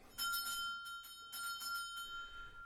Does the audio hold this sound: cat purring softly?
no